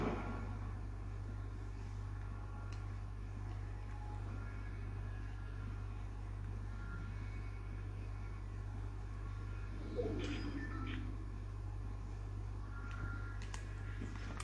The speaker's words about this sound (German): Auf einmal kommt noch Auto, was will noch kommen?